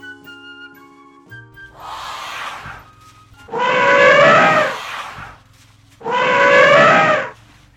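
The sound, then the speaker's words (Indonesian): An elephant trumpets in loud, brassy blasts: a rougher call first, then two long bursts of about a second each with a pause between, over soft background music. “Adik-adik, ada suara gajah.”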